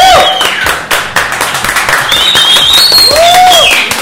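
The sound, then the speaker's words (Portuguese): Loud, continuous crowd applause welcoming a female guest fills the whole clip, a dense wash of clapping with a few high whoops and whistle-like cries rising above it. “Mais uma vez, salva de palmas.”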